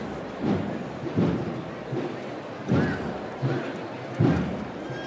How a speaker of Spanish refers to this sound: Suena de nuevo el martillo de Vizcaña.